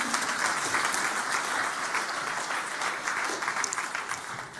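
An audience applauds steadily, a dense, even wash of many hands clapping that holds at the same level for several seconds before easing slightly at the end, with no voices.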